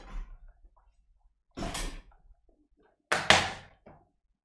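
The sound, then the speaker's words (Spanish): A car door is shut with a short, noisy burst as someone gets into an Uber, followed by a second, louder closing thud a moment later. Both are loud against near silence, with no talking. “Me miró, claro, sube, me mira, tipo, voy a hacer que subí al Uber, cerrá la puerta y mirame.”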